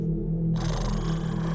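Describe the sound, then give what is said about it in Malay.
A voice imitates a tiger's growl: one low, steady rumble held for over a second, turning harsher and breathier partway through, fairly loud with no other sounds. “Eh, itu bunyi harimau ke apa?”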